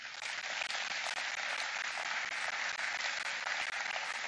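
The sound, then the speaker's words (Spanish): An audience applauds the Lord together, a dense, steady wash of many hands clapping that holds at an even level throughout, with no voices standing out. “Dale gracias, dale un aplauso al Señor.”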